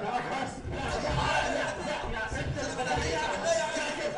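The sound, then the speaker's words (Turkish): An audience waiting for a broadcast to start chatters and murmurs continuously, many overlapping voices at a steady moderate level, with scattered chuckles rising out of the general hubbub. “Bakın ne güzel seyircilerimiz burada. Bu kalabalık”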